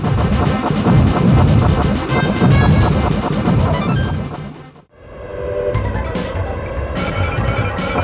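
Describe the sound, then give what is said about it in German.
Rapid, loud video game weapon shots from the Twin Shot fire over busy electronic game music in a spaceship game, the shots a little louder than the music, briefly cutting out around the middle before the shooting and music resume at similar volume. “Die Schüsse sind leider ein bisschen lauter als die Musik.”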